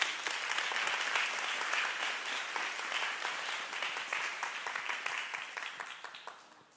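audience applause

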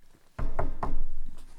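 knocking on a door

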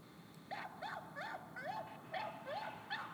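small dog barking

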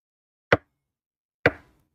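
knocking on a door

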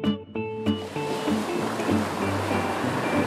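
ocean waves

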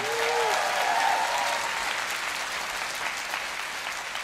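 audience applause

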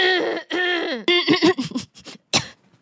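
coughing

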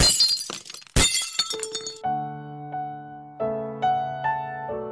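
glass shattering

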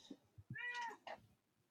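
cat meowing

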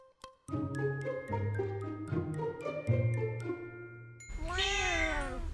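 cat meowing

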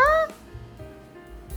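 cat meowing

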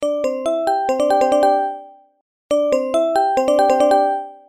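phone ringing

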